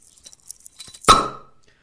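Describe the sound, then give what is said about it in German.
A few faint taps and handling sounds, then beer glasses meet in a single loud clink in a morning toast, its bright ringing tone fading over about half a second. “Prost. Prost. Ein Bierchen am Morgen vertreibt Kummer und so.”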